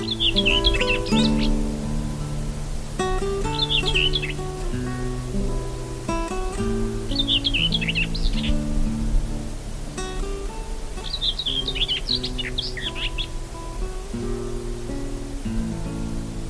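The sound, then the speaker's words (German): Common whitethroat song: four short, scratchy, chattering bursts spaced a few seconds apart, fairly clear, over a soft, steady musical backdrop of sustained low tones with no talking. “Das war die Dorngrasmücke.”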